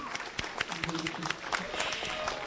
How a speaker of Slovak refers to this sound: potlesk poprosím